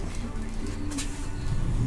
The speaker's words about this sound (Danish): Jeg sidder i bussen, og der kører sådan noget øh, dejlig busmusik her i baggrunden. Jeg er på vej til Sandavagure.